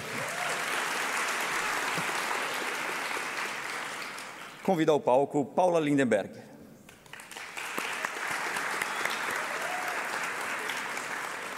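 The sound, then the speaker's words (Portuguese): Sustained audience applause at a panel event as further panel members are introduced, a dense steady clatter of many hands, breaks briefly for a spoken announcement over a microphone, then swells back up and continues evenly to the end. “Dando continuidade à composição deste painel, palmas, por favor.”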